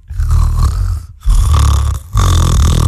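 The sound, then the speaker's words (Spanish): A person imitates snoring with three loud, throaty rattling snores in a steady rhythm, each separated by a short pause, with no other talk. “hágale como ronco usted.”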